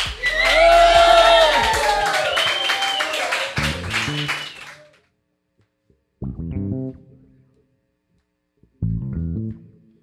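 A loud burst of audience applause and cheering, with whoops and shouts over dense clapping for about five seconds, then it cuts off and a voice speaks briefly twice.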